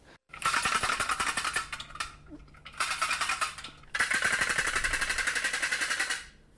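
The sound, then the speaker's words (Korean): A stork clatters its bill in three rapid, rattling bursts, each a dense train of hollow wooden knocks lasting a second or more, loud with short pauses between. “이게 황새가 소리 내는 소리가 불이 부딪히기거든요.”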